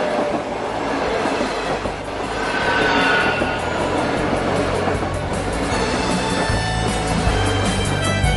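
A train rumbles steadily along the rails, a dense continuous roar with faint rhythmic clatter and occasional high metallic whines from the wheels, with no talking throughout.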